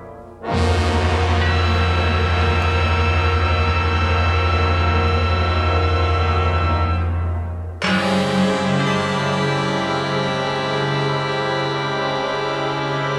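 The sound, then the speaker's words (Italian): Two loud strikes of gongs and bells in an orchestral piece by Messiaen, each blooming into a dense, shimmering metallic tone that rings on and slowly fades, with no talking. “Ecco, sentite questi, questi gong, queste campane, questi”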